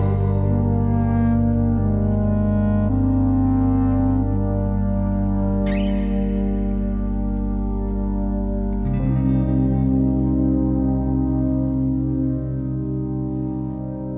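An instrumental stretch of a song played on Radio Campus Paris, drenched in reverb and echo, with thick sustained chords and a deep droning bass that shift midway, staying steadily loud throughout with no voices.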